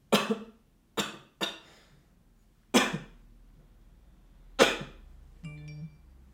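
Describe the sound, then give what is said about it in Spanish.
Five sharp, harsh coughs at uneven intervals, fairly loud, with quiet pauses between them, followed by a short electronic tone near the end. “El primer ejemplo es que si nuestro asistente de voz detecta tos, entonces recibiremos una notificación en nuestro teléfono para comprar jarabe.”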